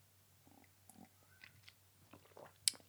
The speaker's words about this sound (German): Wenn ihr diese Pausen hört, das sind keine Kunstpausen, sondern ich trinke einfach meinen Kaffee, denn bin auch ganz schön platt.